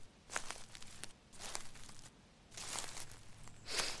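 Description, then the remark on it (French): Dry leaves crunch and crackle under a few slow footsteps, each step a brief crisp rustle, fairly quiet, with no voices. “Les feuilles craquent sous ses pieds.”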